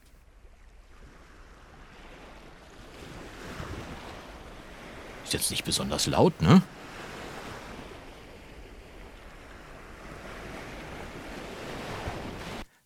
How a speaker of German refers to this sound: Einfach bei Google Meeresrauschen eingegeben und schon habe ich das gefunden.